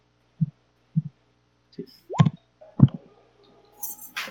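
Two twenty-sided dice are rolled with disadvantage for a sleight-of-hand check, giving a string of sharp clacks and thuds, a few isolated taps and then a quick tumbling clatter that settles on a 10, with no one talking.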